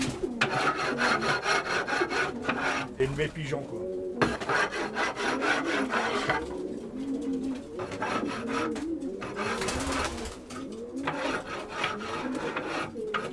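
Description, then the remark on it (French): A scraper rasps repeatedly across a wooden pigeon loft floor in steady strokes, fairly loud, during the daily cleaning of the loft, while pigeons coo softly in the background and a man speaks briefly. “Donc tous les jours, je gratte.”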